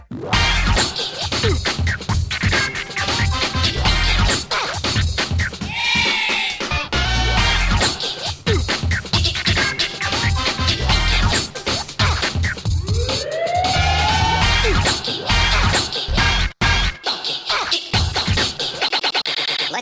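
A loud, busy video game music track plays throughout, with dense driving beats and rising siren-like synth sweeps cutting through the mix. No one talks over it.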